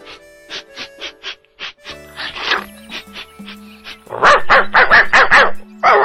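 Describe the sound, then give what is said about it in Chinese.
A dog barks over and over in short, sharp yaps, starting in a quick, lighter run, then breaking into a louder, rapid burst of barks toward the end. No one speaks. “就在这个时候啊，来了一只狗狗，在维尼的身边。”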